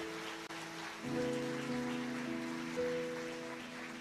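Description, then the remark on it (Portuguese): Many hands clap together to celebrate Jesus during worship, a dense, continuous wash of applause, joined by steady sustained musical tones underneath, with no talking. “Você pode celebrar a Jesus com as suas palmas.”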